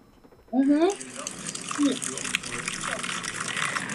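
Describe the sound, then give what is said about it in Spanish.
Cider pours steadily from a bottle fitted with a piece of cork as a spout, a continuous splashing gush that starts abruptly and runs unbroken to the end, with a brief voiced exclamation right at its start. “o sea, no solo eso, sino que le ponen como, o sea, le dejan como un pedazo de corcho a la botella.”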